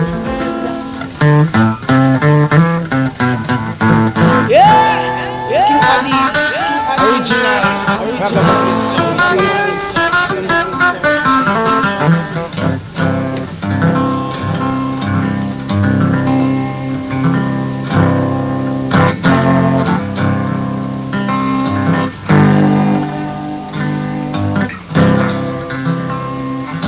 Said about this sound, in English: Play some foundation tune for all my foundation listeners. So listen up.